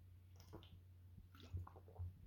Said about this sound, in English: get a drink of water there.